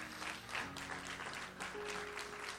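crowd, audience applauding

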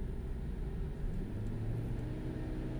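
vehicle, car engine accelerating hard

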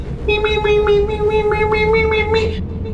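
sound effect, synthesizer sound

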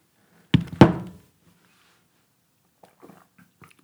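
household object, glasses clinking

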